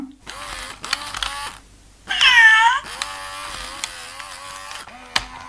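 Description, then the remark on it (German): A cat gives one loud meow partway through, a rising-and-falling cry lasting under a second, set against a quieter background of faint clicks and a steady mechanical hum. “woher kommst du denn geschlichen? Bist du heute schon fertig mit deiner Mauseüberwachung im Garten?”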